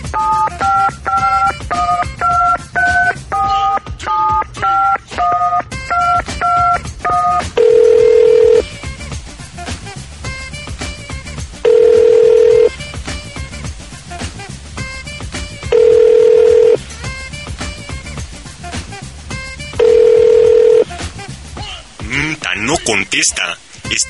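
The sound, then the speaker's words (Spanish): A quick run of about a dozen clear keypad dialing beeps as someone calls a cell phone, followed by four evenly spaced ringing tones, each lasting about a second with pauses between, loud as if through a phone line. “A ver, le voy a marcar al celular.”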